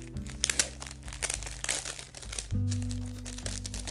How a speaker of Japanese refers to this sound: これ昨日届いてまだ袋から開けてないので今ちょっと開けてみますだからあの何ていうか畳んである表面の部分だけは見えてるんですけどまだ開いてないんですよということで今ちょっと袋から開けるのでなんか袋のガサガサした音が聞こえるかと思います